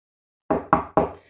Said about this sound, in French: Toc toc toc qui, qui, qui, qui est là C'est moi, le loup.